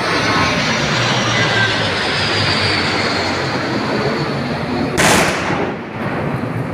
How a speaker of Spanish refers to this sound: merece la pena rescatar algo un poquito más amigable, como es el desfile aéreo del 12 de octubre y antes también con la patrulla águila dibujando el cielo de Madrid.